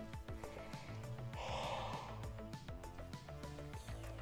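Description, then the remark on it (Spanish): A breathy, drawn-out yawn rises briefly in the middle, over steady rhythmic background music with a plucky beat. “Perdón bostezando.”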